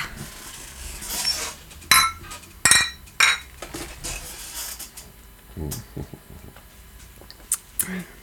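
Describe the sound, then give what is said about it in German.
Glasses clink together in a toast, a quick cluster of bright, ringing taps, followed by softer clatter and faint voices murmuring. “So, aber erstmal Prost.”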